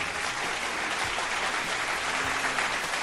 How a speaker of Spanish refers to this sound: Aplausos para Domex.